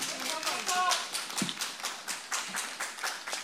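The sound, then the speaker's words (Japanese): An outdoor concert audience applauds a band after their encore, a steady, dense, continuous patter of many hands clapping at an even loudness, with a few faint voices or cheers mixed in near the start. “もう一度大きな拍手お願いします本当に素敵な、ね、演奏ありがとうございました”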